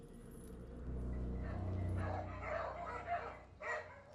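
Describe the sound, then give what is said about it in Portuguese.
Dogs bark in a quick, overlapping burst as a door opens, fairly loud, with a few short yips and whines mixed in over a low background rumble. “os cachorros começam a latir.”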